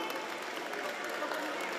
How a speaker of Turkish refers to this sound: Benden Söylemesi programıyla Merve Yıldırım alkışlarınızla sahneye geliyor. Hoş geldiniz.